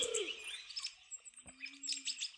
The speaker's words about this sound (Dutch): Oh, ik hoor ook allemaal kleine beestjes. Kuikens bedoel ik. hoor allemaal babyvogels.